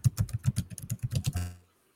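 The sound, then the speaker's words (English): Rapid computer keyboard typing by a participant on an online call, about a dozen quick clicky keystrokes in a steady burst, clear, ending with a slightly longer key press before falling silent. No one speaks. “I got I got to mute him cuz I can hear him typing.”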